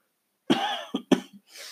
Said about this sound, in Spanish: Perdón, has ido con la tos. Maldita, maldita tos no se me quita.